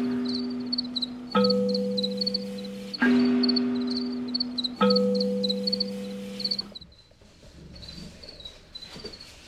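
Many male crickets in a farmed colony chirp together, their high, rapid pulses overlapping in shifting interlocking rhythms, steady, with a low droning hum swelling in and out beneath them.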